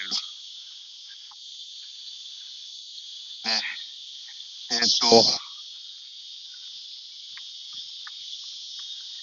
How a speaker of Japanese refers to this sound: というか、この、じいじ聞こえますかこのセミの声。じいじいじいっていうの。